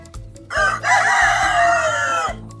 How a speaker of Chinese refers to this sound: 鸡叫得太大声了，阿懒吓得从床上跳起来。